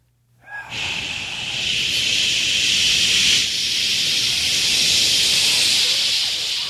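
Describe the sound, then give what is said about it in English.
Several people hiss steadily into microphones, producing a loud, continuous breathy hiss that swells after a brief start and holds for several seconds, with a slight dip midway. “Everybody, when he goes turn up, everyone make like hissing sound into the mic.”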